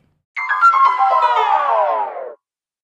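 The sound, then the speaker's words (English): A short back-from-break music jingle from Anchor: a bright, buzzy synthesized tone with rich harmonics that slides steadily downward in pitch for about two seconds, fairly loud, with no talking. “Even I just, if I thought we needed music to bring us in, no, I, just, I, just, want to say shout out to Anchor for giving us that beautiful back from break music.”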